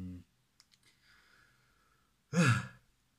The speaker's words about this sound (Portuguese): Isto vai ser bem engraçado estar a ouvir isto e estar tipo, a bocejar. E por isso eu vou bocejar com os meus beceios.